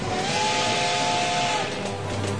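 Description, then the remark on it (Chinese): The steam whistle of Toto, the little train in a children's story, blows a steady, breathy tone over loud rushing steam hiss. The whistle drops away after about a second and a half while the hiss continues. No one speaks. “小火车拉响汽笛，给自己加油打气。”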